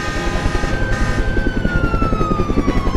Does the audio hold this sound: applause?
no